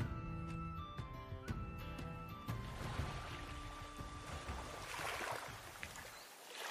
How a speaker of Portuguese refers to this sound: As ondas quebravam no rochedo ao leste daquela ilha.